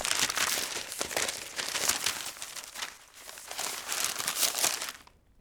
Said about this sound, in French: Ça passe par un bruit de papier, des pages qui se tournent que j'ai trouvées. Enfin, écoutons ces feuilles qui se tournent, ce plaisir d'un livre qu'on lit.